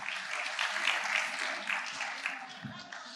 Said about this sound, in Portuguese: Obrigado pelos autores, atores. Aplaudam os autores aqui.